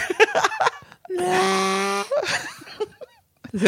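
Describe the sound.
Someone vocally imitates a howling electric vehicle: a loud, steady, buzzy held tone lasting about a second, flanked by short bursts of talking and laughter.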